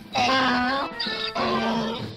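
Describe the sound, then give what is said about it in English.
A person's voice imitates a donkey braying, with loud, drawn-out honking calls in two strained bursts that rise and fall, with no other sounds around it. “I can do an impression of a donkey! Listen!”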